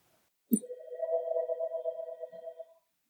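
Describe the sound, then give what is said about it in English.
A phone rings with one steady electronic tone that starts after a soft click and holds for about two seconds before stopping. It is fairly clear, with no talking. “I hope you can't hear that. Phone.”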